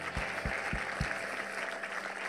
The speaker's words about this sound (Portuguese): Segue-nos dar uma salva de palmas a Jesus pelos seus milagres.